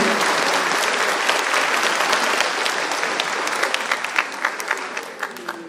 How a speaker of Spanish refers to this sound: Dense un fuerte aplauso.